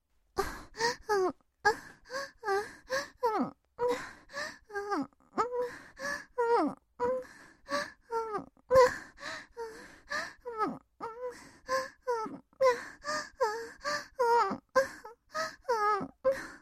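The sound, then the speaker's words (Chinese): A woman moans over and over in short, breathy, rhythmic bursts, her pitch rising and falling with each one, continuing steadily throughout with no words spoken. “嘴里也不断的发出呻吟声”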